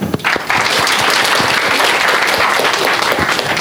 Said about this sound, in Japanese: 皆さん拍手で